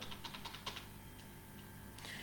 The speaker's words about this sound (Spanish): De hecho, si pulsamos la tecla eh, correspondiente, que cada uno usa su tipo de teclado, así que no la voy a mencionar, eh, para irnos desde arriba del todo y desinteractuamos, por llamarlo de alguna forma, con todos los objetos,